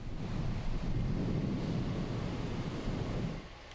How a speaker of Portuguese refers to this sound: Em São Sebastião, no litoral norte, o vento arrancou o telhado desta casa e de uma quadra esportiva. E o mar subiu tanto que uma onda quebrou a cerca e invadiu o quintal, levando tudo que tinha no caminho.